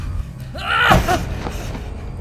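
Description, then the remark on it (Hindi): A single dull thud, overlapped by a short strained groan of pain from a person, then a low rumbling background continues; a man walking in the dark hits his knee on a stone and falls to the ground. “धम की आवाज़ के साथ एक दर्द भरी कराहट सुनाई पड़ी”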